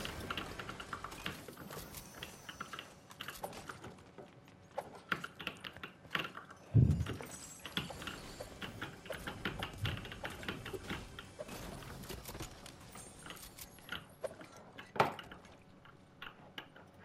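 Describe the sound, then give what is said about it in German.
Continuous rapid typing on a computer keyboard, with dense clicky keystrokes in an uneven rhythm and a few louder thumps, with no talking. “Ich weiß nicht wieso, aber deine Tastatur die hört sich übertrieben chillig an.”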